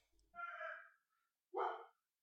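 A pet female dog named Loli barks twice with a gap between: first a drawn-out, slightly whiny bark, then a shorter, sharper one. Fairly quiet, with no talking.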